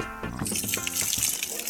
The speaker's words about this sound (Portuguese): Hoje, 19 de agosto, olha, acabamos de colocar em funcionamento aqui bombeamento do sistema de abastecimento de água aqui do posto Mundurucus. Tá na hora de pico aqui, são quase duas e meia da tarde. Faça-me tá teste, a bomba de meio CV trifásica.